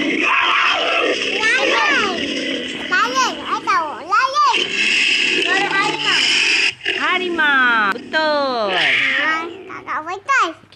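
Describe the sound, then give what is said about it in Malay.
Repeated loud crowing calls of a chicken, rising and falling one after another over a busy, noisy background, with several overlapping cries through most of the stretch. “Suara apa apakah ini? Ayam Ayam Bagus, pandai Ayam Ayam bunyi waktu apa?”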